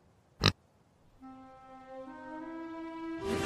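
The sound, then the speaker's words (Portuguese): A pet pig called Spider-Pig (Porco-Aranha), renamed Harry Porco, oinks in a long, drawn-out squeal that slowly rises in pitch and grows louder, preceded by a single sharp click. No one speaks. “Leva o porco-aranha com você? Ele não é mais o Porco-Aranha, ele é o Harry Porco.”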